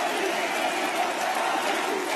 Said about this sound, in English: that's the crowd chanting Marine, President.